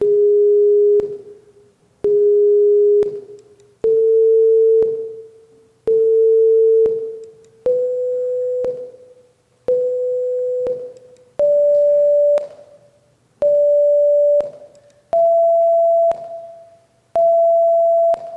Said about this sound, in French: Euh, vous tendiez entre, si vous voulez, sur un cadre comme ça, carré, et vous tapez dessus. Et maintenant, les vibrations que vous obtenez euh, ont l'allure suivante. Ça va faire le bruit deux fois avant de, donner ce qu'il faut.